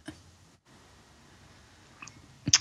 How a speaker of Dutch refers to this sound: Ik pak even een slokje water.